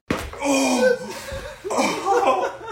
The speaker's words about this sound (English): that is the sound of TikTok creator … cracking a watermelon with nothing but his muscular thighs